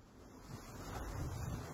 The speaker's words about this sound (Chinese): 然后在那个岛上，清晨的时候，我早上起来准备去看日出，沙滩上一个人都没有，然后那个海浪声一层一层的扑过来，然后我觉得哇，这个声音就是我一直梦寐以求想要录到的那个自然声音。